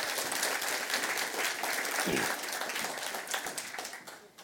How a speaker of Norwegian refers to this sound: Ja, det er litt tidlig å klappe, syns jeg, men eh, Men de, dere klapper fordi at dere er glade for å være her.